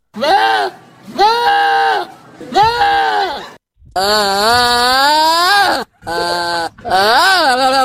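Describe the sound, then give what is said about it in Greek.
A goat bleats loudly, about six wavering, nasal calls in a row, some short and some long and drawn out, with brief pauses between them. “Για πες μας ποιο ζωάκι ψάχνουμε ε, Είναι κατσίκι Είναι το κατσίκι Εκεί είναι το κατσίκι Αλήθεια Είναι κατσίκα, προβατίνα Είναι η γίδα κατσίκι”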